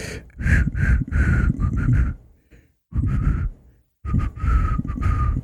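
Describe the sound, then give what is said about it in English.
Someone tries to whistle a theme tune, but mostly produces breathy, airy blowing with only faint, wavering pitches, in three short bursts separated by brief pauses. “I hope the whistle theme th- comes back.”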